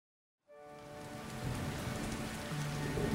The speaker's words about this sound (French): La pluie était tombée des jours et des jours, des nuits et des nuits, sur tout le pays.